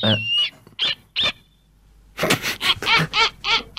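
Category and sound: bird, snowy owl call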